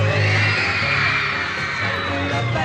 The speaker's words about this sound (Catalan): no podien sentir bé per aquests crits els crits de les fans.